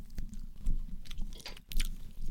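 Chewing a rubbery, tough squid snack that softens as it is chewed, wet and rubbery, with repeated soft squelching bites at an irregular rhythm and occasional sharper clicks, heard alone with no talking.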